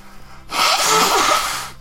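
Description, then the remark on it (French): A single loud nose blow to clear a runny nose, a sustained rough burst of air lasting just over a second after a brief quiet moment, with no talking. “Je j'ai être là pour vous prouver que c'est live, je vais moucher right là parce que j'ai la goutte du bout de dîner.”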